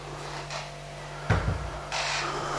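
door being opened

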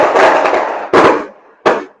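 fireworks exploding outside

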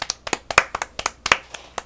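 hand clapping

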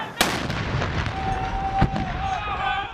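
explosions and artillery fire

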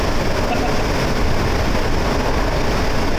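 subway train running

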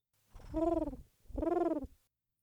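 dove cooing

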